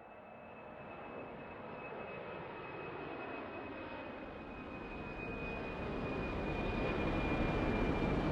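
Jet airliner engines roar steadily with a high, thin turbine whine on top, the rumble slowly building in loudness over several seconds as they spool up before takeoff. No voices.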